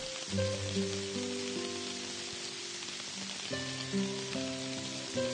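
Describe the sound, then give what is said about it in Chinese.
Heavy rain pours in a steady, dense hiss throughout, while soft sustained music chords play over it, shifting a few times. No one speaks. “好大的雨。”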